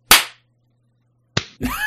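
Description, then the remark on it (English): A sharp hand clap, made on a three-two-one-zero countdown to sync a recording, rings out and decays quickly, followed after a pause by a second crisp clap. A brief burst of voice or laughter begins right after. “Three, two, one, zero clap.”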